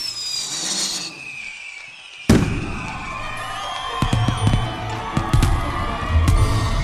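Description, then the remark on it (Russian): Fireworks boom and crackle over a noisy crowd, with a sharp blast around two seconds in followed by repeated pops and bursts while people cheer and murmur throughout. “В годы его правления фейерверки устраивали в каждый значимый праздник.”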